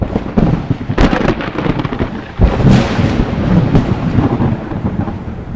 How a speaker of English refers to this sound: Then, Michael prayed to God and the Lord, in answer, sent thunder and lightning out of the heavens.